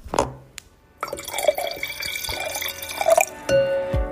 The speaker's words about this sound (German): Ah, sehr schön eingeschenkt.